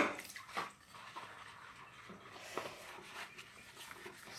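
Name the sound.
running water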